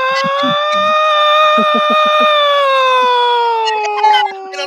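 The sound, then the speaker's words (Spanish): The Cobreloa siren sounds, a loud, steady continuous wail with a long sustained tone that slowly dips in pitch, while short low thumping or barking sounds pop in underneath. “Mira, la sirena de Cobreloa”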